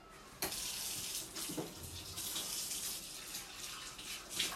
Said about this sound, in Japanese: みんないるんだったら電話したいなあ電話ダメか食器洗いの音入っちゃうごめん間違えた